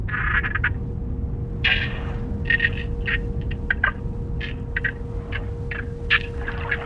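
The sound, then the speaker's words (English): A dolphin pod clicking underwater as one intoxicated dolphin interacts with the pod: short, buzzy bursts repeating irregularly over a constant low rumble and a faint steady hum, with no voices. “Yes, so what you're hearing here is the interaction between one intoxicated dolphin and their pod.”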